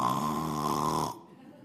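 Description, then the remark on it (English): A person imitates a roommate's snoring that woke them at half past 11 at night at college: one loud, rasping snore, a buzzy, throaty rumble held for about a second, before it cuts off into near silence. “he doesn't normally snore.”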